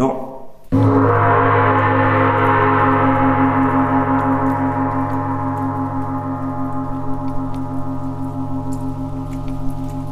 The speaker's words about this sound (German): Hauptraum vom Meditationshaus gibt es auch einen Gong. Und den schlagen wir jetzt.